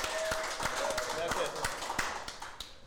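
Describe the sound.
Steady, evenly paced hand clapping for a birthday, around nine or ten sharp claps in under three seconds, with a murmur of voices running underneath.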